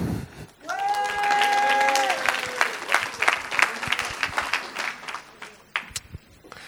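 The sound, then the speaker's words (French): An audience breaks into loud, dense clapping that holds steady for several seconds before thinning into scattered claps. A brief high, sustained cheer rises over it near the start. “C'est bien, on applaudit à chaque fois qu'il y a un truc qui se passe.”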